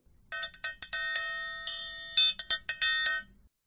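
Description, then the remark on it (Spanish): An idiophone, a crystal instrument designed by Franklin that uses its own body to resonate, played in a quick, uneven run of about a dozen struck notes, bright and bell-like with high ringing overtones that shimmer and decay between strikes; no voices. “Empiezo contándoles que este es un instrumento de la familia de los idiófonos, o sea, instrumentos musicales que tienen sonido propio porque usan su propio cuerpo como materia de, de resonancia.”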